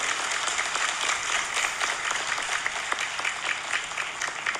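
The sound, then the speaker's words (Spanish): Loud, sustained audience applause at the ninth Cooperative Congress: dense, even clapping from a large crowd with a steady, unbroken texture and no voices heard over it. “Felicitémonos una vez más con un fuerte aplauso como preámbulo del éxito de este noveno Congreso Cooperativo.”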